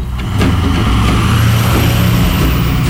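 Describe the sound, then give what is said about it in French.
Heavy traffic roars past on an expressway as someone walks along the roadside, a steady wash of engine and tyre noise with cars and trucks blending together, and a faint hiss of air brakes near the start. It is 35 degrees in the shade. “alors que je marche sur la voie rapide”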